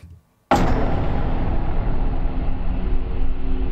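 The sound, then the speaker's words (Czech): A video game death sound effect: after a brief quiet moment, a loud, abrupt blast hits and holds as a dense, rumbling roar with a buzzy tonal edge, sustaining steadily with no voices. “No zvuk, který se přehraje, když zemřete.”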